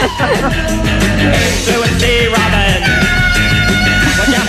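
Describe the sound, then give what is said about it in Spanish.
A loud, busy pop track with driving bass and drums, as high, shrill vocal yelps and shouts burst out repeatedly over the music. “no, pero aquí ya gritan más, ¿eh? Ya gritan más.”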